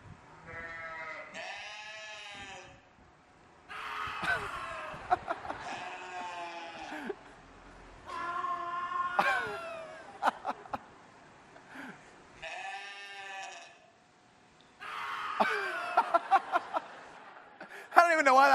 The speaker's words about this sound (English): Look, this is just sheep, little tiny lambs, sounding like human beings. This is awesome.